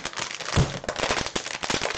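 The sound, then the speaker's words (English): A voice imitates rustling in the back seat of a car driving on a freeway, a steady two-second stream of dense, scratchy crackles and hisses, broken by one low thump early on. No words are spoken. “So I started rustling in the back. All she hear is this.”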